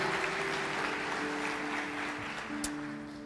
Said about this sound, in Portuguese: Dê um forte aplauso a Jesus.